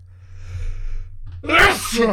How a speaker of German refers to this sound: Gesundheit.